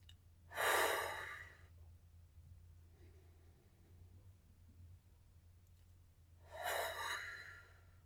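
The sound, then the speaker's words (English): Two slow, breathy whooshing exhales about six seconds apart, made while breathing out during diaphragmatic breathing, each a soft rushing burst of air, with quiet breathing and a faint low hum in between. No one speaks. “And when you breathe out, make a whooshing noise.”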